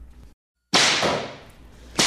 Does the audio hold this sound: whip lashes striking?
yes